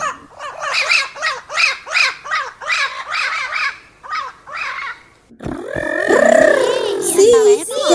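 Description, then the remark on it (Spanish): Voices imitate a flock of squawking parrots in a children's story: first a rapid series of rhythmic, nasal squawks, then a loud, chaotic burst of overlapping shrieks and warbling cries, harsh. “Pero cuando Lucrecia les iba a contar qué iba a hacer, todos los loros dijeron.”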